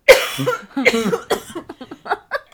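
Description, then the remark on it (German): A harsh, raspy coughing fit: a few loud hacking bursts, then a rapid string of shorter, wheezy coughs that taper off. No talking. “wow, das klingt absolut ungesund.”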